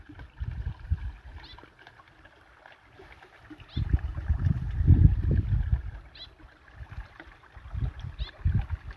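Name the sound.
flowing water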